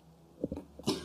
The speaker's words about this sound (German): Entschuldigung, ich habe einen Hustenanfall. Mann, Krankheitsanfall. Gesundheit.